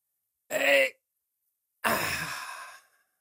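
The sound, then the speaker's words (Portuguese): A voice imitates the groan made when sitting down, a mix of effort and relief: a short strained exhale, a pause, then a longer breathy sigh that trails off in relief. Fairly loud, with no words spoken. “Mas quando se senta é um barulho diferente. É uma mistura entre esforço e alívio.”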